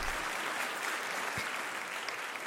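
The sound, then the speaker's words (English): A steady round of applause, dense clapping from several people filling the whole stretch at an even, moderate level, with no voices over it. “Got to give him a round of applause.”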